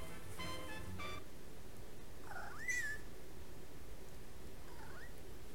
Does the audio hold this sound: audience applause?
no